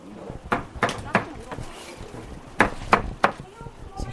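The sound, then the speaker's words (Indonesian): A knife chops through large radishes on a board at a restaurant, where 120 large radishes are being cut to make kkakdugi, a radish kimchi; sharp irregular thunks land in two short bursts of four or so strokes, with faint voices murmuring underneath. “Mereka sedang memotong 120 buah lobak yang besar.”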